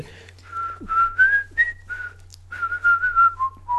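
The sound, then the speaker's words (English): Someone whistles a bouncy, quick melody from a Game Boy pinball game, notes rising and falling in short phrases with brief pauses, over a faint steady low hum. No one speaks. “That was the music I was singing this morning in the shower.”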